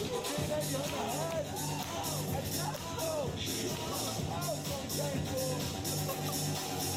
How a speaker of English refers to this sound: It's honestly funny just hearing the people in the crowd's reaction. Like that trick right there is wild. He was spinning it on his finger and had the string doing like a I don't know what, what movement you would even call that.